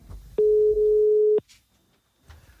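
A single loud, steady telephone ringing tone of an outgoing call to Stavanger sounds for about a second, a clean electronic beep over faint background noise, followed by quiet with a brief soft rustle.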